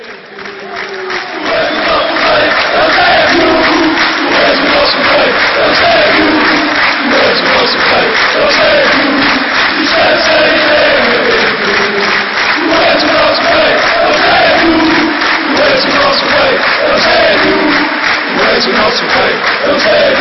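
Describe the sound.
Portuguese football supporters chant together in a stadium, a dense roar of many voices rising and falling in a steady sung rhythm, loud and sustained throughout with crowd noise underneath.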